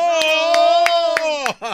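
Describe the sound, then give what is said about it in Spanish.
A few sharp hand claps, applause for someone who has been reading aloud, in a steady rhythm, about one every third of a second, ring out over a sustained, high-pitched voiced tone that falls away near the end. “¿A quién la aplaudieron?”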